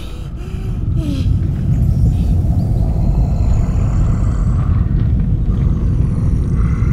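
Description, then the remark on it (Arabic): A deep, booming snore of a giant sleeping in a forest in Jotunheim swells in within the first second and then rolls on loud and steady, low and heavy enough to sound enormous, with no voices over it. “هذا ليس زلزالا ولا عاصفة يا تيالف أنا أعرف هذا الصوت جيدا هذا صوت شخير عملاق وبالفعل كان أحد العمالقة نائما في مكان قريب منهم في الغابة”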